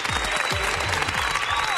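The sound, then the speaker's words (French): Dense, steady applause from a crowd of clapping hands for the winner of an Arturia SQ80V licence, holding an even loudness for the whole short stretch, with a few low swooping tones sliding beneath it. “Ah là là là là là Applaudissements.”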